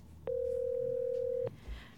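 A telephone line tone for an incoming call to the Silbertelefon helpline: one steady, mid-pitched beep held for just over a second, switching on and off abruptly over a faint low hum.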